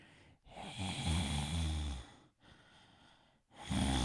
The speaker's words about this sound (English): So I'm like, nah, I'm just gonna do normal breathing. I'm gonna go for a more sinister breathing pattern.